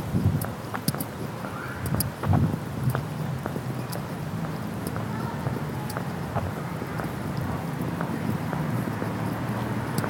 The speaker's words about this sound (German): wenig windig.